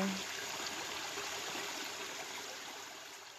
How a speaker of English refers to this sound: The clear forest air is so healing. and the sounds of the water babbling summon us to tap into our higher power.